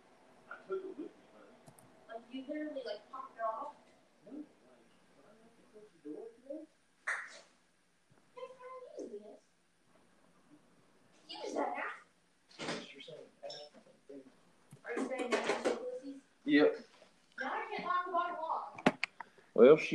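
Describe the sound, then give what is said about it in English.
A door is opened to let a woman in, with some clattering and knocking, sharp handling noises breaking in among bursts of talk from a man. “Oh, hang on, I got to get the uh, door for my girl.”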